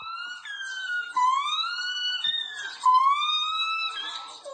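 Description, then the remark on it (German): A monkey at the zoo in Kyiv imitates an air-raid siren with a series of loud, high, wavering wails that rise and fall in pitch, repeated in short bursts, with no talking. “Sie war im Zoo von Kiew und sah dort einen Affen, der den Bombenalarm imitierte.”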